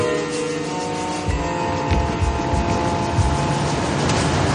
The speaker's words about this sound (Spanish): Mientras, Dave continúa conduciendo.